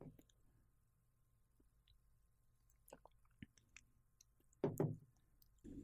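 Someone quietly sips from a glass of water. Small wet mouth clicks and swallows come first, then a louder gulp near the end, with no talking.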